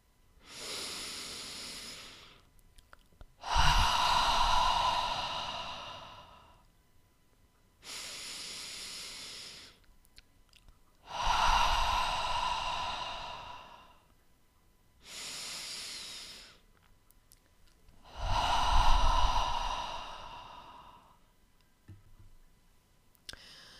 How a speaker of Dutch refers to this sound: Sluit dan je ogen en adem een aantal keren diep in door je neus en uit door je mond in jouw eigen tempo.